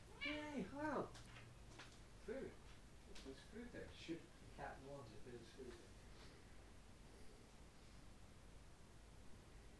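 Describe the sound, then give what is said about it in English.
A cat, being lifted onto a counter to eat her food, gives one loud, drawn-out meow at the start, followed by several softer, shorter vocal sounds over a steady low background hiss. “I'm going to lift my cat onto the counter, which she's quite capable of jumping up to, so she can eat her food”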